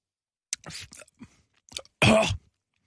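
Wet chewing on soft, sticky dates: a few short smacking bursts with brief pauses, ending in a louder, longer mouthful noise. No one speaks.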